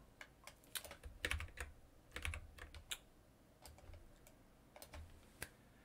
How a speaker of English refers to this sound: Um, well, is that my keyboard? Well, somebody, maybe me, just inserted a bunch of new lines. That's fun.